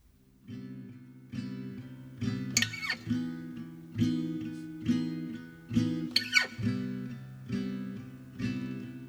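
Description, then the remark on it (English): A guitar part plays on its own, a steady rhythm of strummed chords with sharp attacks and ringing low notes, clear, with no voices over it. “has come up with a guitar part. We'll play just a little bit of it for you.”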